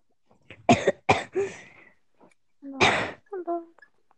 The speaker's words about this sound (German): Hust, hust, hust. Ganz viel Husten. Hustenfrei. 10 Milliarden mal husten.